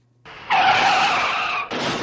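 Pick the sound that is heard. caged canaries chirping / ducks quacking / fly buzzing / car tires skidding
car tires skidding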